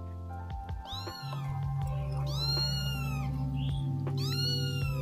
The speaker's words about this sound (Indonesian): Anak kucing itu seketika diam dari meongnya, melihat aku membawakan sebuah wadah minum untuknya.